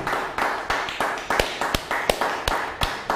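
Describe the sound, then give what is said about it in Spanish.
Steady rhythmic clapping as applause for the Shabbat, about nine sharp claps beating evenly over a constant background hiss, with no voices heard. “Vamos a dar un fuerte aplauso nuevamente al Shabbat.”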